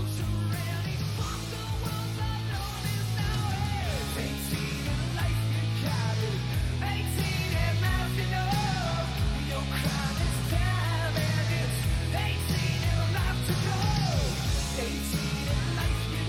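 A loud hair metal rock song plays continuously on 1010XL 92.5 FM radio for the whole stretch, with a sustained, full band sound and a wailing lead vocal soaring over the heavy instrumentation.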